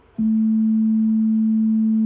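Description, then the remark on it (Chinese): A synthesizer tone, with a second operator modulating the pitch of the first oscillator to give different harmonics, starts abruptly and holds steady at a low-mid pitch, loud and alone. Toward the end, a faint higher overtone creeps in above it, with no talking. “好，我们听没听到一个音变高了？”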